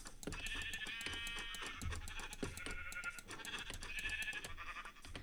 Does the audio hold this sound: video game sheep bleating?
yes